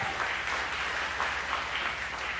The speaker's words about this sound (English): Yeah, come on. There's a, that's, y'all need to clap for that.